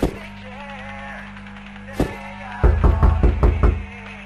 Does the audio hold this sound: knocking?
yes